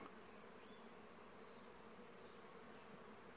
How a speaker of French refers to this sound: L'explication, c'est celle-ci. C'est un tilleul. Il est entièrement en fleurs. Il doit y avoir là, à l'intérieur, dans cet espace, des centaines d'abeilles qui font ce bruit de moteur.